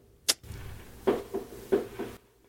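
Fireworks going off outside, muffled and distant: one sharp crack followed by four duller booming pops at an uneven pace, fairly quiet, with no talking over them.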